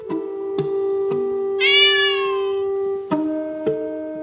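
A cat gives a long, drawn-out whining meow that swells brighter and higher in the middle, punctuated by a few sharp clicks, with no one talking.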